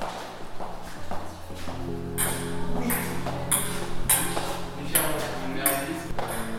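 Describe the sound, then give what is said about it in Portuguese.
A ping-pong ball drops down a staircase, recorded on these stairs and installed as a sound for the place: a series of sharp, light clicks spaced out over several seconds, echoing in a reverberant space over a steady low hum. “Portanto, no fundo é o cair, é o cair numa bola de ping-pong. É exatamente aqui pelas escadas.”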